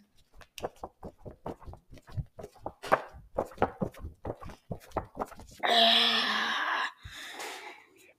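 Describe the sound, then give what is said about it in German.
Crisp rustling and crunching of leaves in quick irregular bursts for several seconds, followed by a louder steady whooshing rush and a brief softer rustle at the end. “Habt ihr es gehört, wie das so rauscht?”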